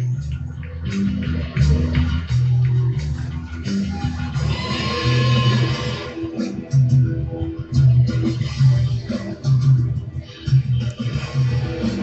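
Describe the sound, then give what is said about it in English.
A live rock band plays continuously with a steady, pulsing bass beat and dense guitars, recorded from the crowd on a cell phone and sounding thin and slightly muffled. “Sorry if the sound's not all that powerful. It's just on his cell phone, but it's coming up clear at least.”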